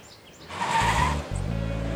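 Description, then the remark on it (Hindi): A car engine cranks and catches with a loud burst as someone sitting in the car starts it, then revs briefly and settles into a steady rumble. Faint chirps are audible just before it starts. “उस लड़की की आवाज को अनसुना कर वो गाड़ी में बैठ गया गाड़ी स्टार्ट की और रेस देना शुरू किया”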